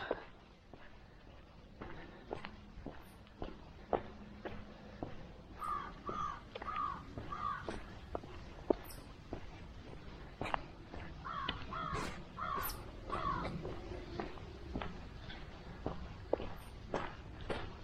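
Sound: crows cawing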